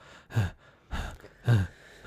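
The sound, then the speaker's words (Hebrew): Three quick, audible breaths drawn in through the mouth, evenly spaced, each a short breathy rush with no talking: a demonstration of breathing in through the mouth to take in more oxygen. “אז אני רוצה להכניס יותר חמצן, אני אנשום דרך הפה, mm-hmm.”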